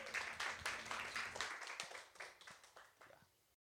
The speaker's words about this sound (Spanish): Bueno, y con esto cerramos la cuarta, el cuarto capítulo de conversatorios de la Biblioteca de Noche aquí en Un aplauso más grande, por favor.